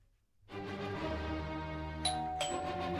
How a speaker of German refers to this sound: Jetzt klingelt es einem noch einmal für euch an ihrer Türe, unser letztes Rätsel.